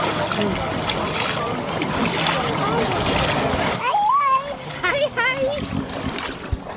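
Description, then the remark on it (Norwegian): Water splashes and sloshes steadily as people wade out in not very warm water at a pre-event on the event site in Harstad, Norway, with children's voices calling out over the churning water, growing clearer toward the end. “folk vasser ute i vannet,”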